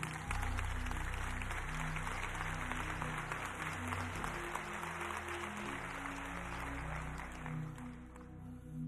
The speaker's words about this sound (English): All the men, just stand right where you are. Uh, ladies, give them all a round of applause one more time for me, please.